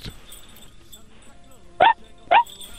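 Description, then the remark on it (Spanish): A voice imitates a female dog barking with two short, loud woofs about half a second apart, following a stretch of quiet background murmur. “¿Puedes hacer el sonido de, de una perrita?”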